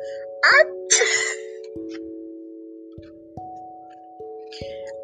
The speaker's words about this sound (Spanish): Inmediatamente el niño estornudó y quedó convertido en ratón.